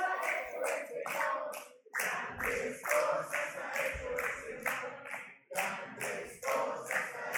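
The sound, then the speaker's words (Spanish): A crowd claps together in a steady, rhythmic beat during worship praise, as a worship leader directs them, sharp hand claps repeating roughly every half second and filling the whole stretch, with a faint murmur of voices underneath. “Aplaudan así.”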